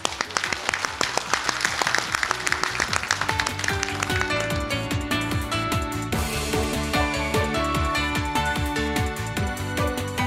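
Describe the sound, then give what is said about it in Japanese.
A burst of audience applause at the close of an investor relations seminar by the Japanese company Riso Kyoiku, dense and loud, fills the first few seconds, then gives way to upbeat music with a steady rhythmic beat that carries on to the end. “皆様盛大な拍手をお願いいたします”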